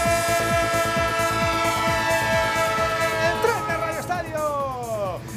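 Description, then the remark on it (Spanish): A short train-themed jingle for Onda Cero radio's 'el tren' Liga Santander football coverage: rhythmic chugging beats under sustained horn-like tones, ending with sweeping whistle glides that bend downward, loud and continuous throughout. “el tren de Onda Cero, el tren que quiere, como no, dar cada latido de esta intersemanal, la número 31 en la Liga Santander”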